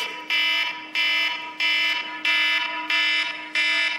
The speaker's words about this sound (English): Uh, that, that, that tone is called alarm, um, and it is the only thing that like wakes me up.